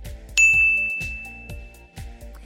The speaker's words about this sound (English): There will be a nice little ding sound to let you know when we're switching moves